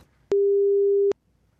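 A single telephone ringing tone as a phone call is placed: one steady, mid-pitched electronic beep lasting under a second, clear and isolated against near silence, with no voices.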